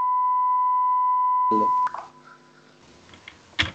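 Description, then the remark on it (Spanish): A single loud, steady electronic beep holds one pure pitch for almost two seconds, then cuts off abruptly, followed by faint rustling and a sharp clatter near the end. “¿Pitido cuál? Pitido.”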